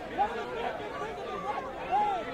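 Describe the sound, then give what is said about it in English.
A dense, noisy crowd chattering all at once, many overlapping voices forming a loud, restless babble with a few brief raised calls cutting through. “this crowd is unruly, boy. The crowd is unruly.”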